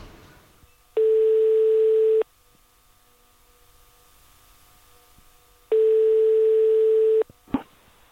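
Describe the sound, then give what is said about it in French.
A telephone ringing tone heard while calling a father in Edinburgh: two long, steady, buzzy tones separated by a few seconds of quiet, followed by a brief click as the line picks up. “Et donc je vais appeler mon père sénégalais qui est à Édimbourg”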